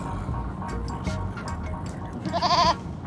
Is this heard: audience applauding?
no